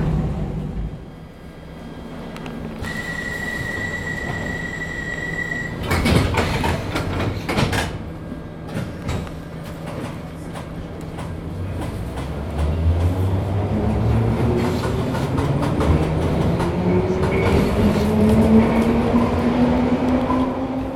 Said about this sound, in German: Ich bin jetzt gerade in den Heathrow Express Zug eingestiegen. Das ist ein Schnellzug, der von London Heathrow Terminal 5 nach Paddington Station fährt. Der braucht ungefähr 15 Minuten und fährt alle 15 Minuten ab.